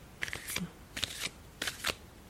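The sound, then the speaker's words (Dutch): Playing cards being shuffled in three quick bursts of crisp, papery riffling, each a fluttering rush of soft flicks, separated by brief pauses, with no talking. “Ik schud deze kaarten voor jou.”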